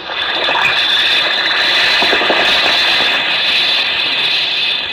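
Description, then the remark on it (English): A steady fizzing hiss of an Alka-Seltzer tablet dissolving in water, continuous and fairly loud throughout, with faint crackling bubbles and no voices. “Listen to it fizz.”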